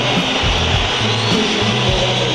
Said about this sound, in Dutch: Vandaar dat fluitconcert, want Robben was levensgevaarlijk.